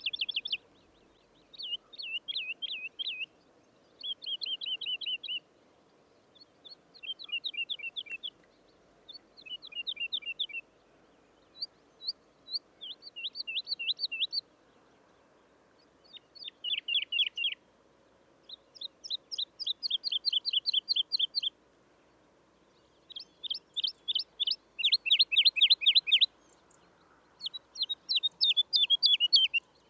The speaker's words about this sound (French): Une alouette Lulu chantant en survolant son territoire,